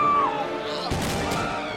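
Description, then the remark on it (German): Another gunshot rings out as soldiers push through a crowd toward Richard Wagner: a single loud crack partway through, leaving a broad, noisy rumble that lingers to the end. Before it, a faint falling whistle-like tone sits over a low background din. “Wieder fällt ein Schuss.”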